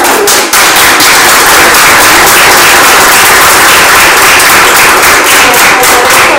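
A crowd claps steadily in thanks to an institute after a talk about educating children, a loud, dense patter of many hands that fills the whole stretch without pause and with no voices rising above it.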